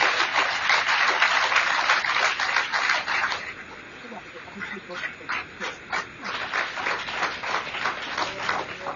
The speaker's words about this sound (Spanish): Si te atreves a dar un aplauso sin artritis, déselo con fuerza.